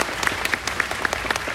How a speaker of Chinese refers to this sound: 我们给爱多美一个掌声，因为要做到这个不容易哦。